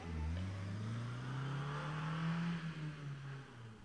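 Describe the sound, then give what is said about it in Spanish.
A car engine starts, revs and accelerates as the vehicle pulls away, its steady rising hum easing off slightly toward the end. No one speaks. “El auto de se arranca y se aleja.”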